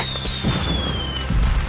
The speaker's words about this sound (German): Und es endet Montagabend mit einem großen Feuerwerk.